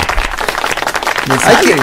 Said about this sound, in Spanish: Dale un aplauso a, a mi sargento Chano.